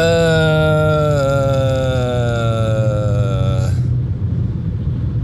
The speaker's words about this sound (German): Muss eben auf die Autobahn hinauffahren und dafür ganz viel Gas geben, damit der LKW mich hier nicht am Brückenpfeiler zerquetscht, sondern ich vorher noch einscheren kann.